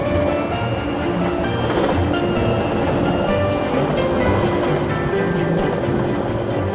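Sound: train running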